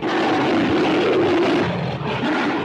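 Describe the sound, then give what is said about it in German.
A monstrous giant-ape roar from an original 1930s film, built from lion and tiger roars played backwards: one loud, sustained, rumbling bellow that stays powerful for nearly three seconds, with no voices. “so sind die rückwärts abgespielten Löwen- und Tigergeräusche des Original King Kong Sounds noch immer glaubwürdig monsterhaft”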